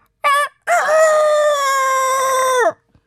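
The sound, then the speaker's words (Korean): A loud rooster crows once as a sound effect in a show's introduction: a short opening note, a brief gap, then a long, drawn-out call lasting about two seconds that drops off at the end. No voices. “아이고 종치고 노래하고 다구름 소리에 참 진짜 소개가 날로 요란해지네요.”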